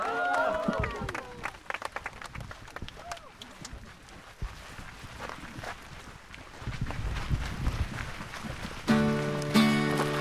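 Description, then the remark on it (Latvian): A crowd applauds steadily for several seconds, a dense patter of clapping that swells louder in the middle, with a voice briefly at the start and music coming in at the end. “Slava tev, kungs, un skaļi aplausi!”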